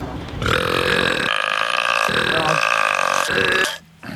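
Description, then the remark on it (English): An extremely loud, sustained burp rumbles for nearly four seconds, raspy and resonant with shifting tone, overpowering, ending abruptly. Reportedly the loudest burp in Guinness World Records, from the Guinness World Records YouTube channel. “This apparently is the loudest burp in the Guinness Book World.”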